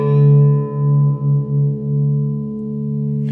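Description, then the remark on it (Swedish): A distorted electric guitar chord rings out loud, sustaining for a few seconds with a slight wavering as it slowly fades, played alone without any talking. “Ska jag bara lyssna på dem med lite dist också?”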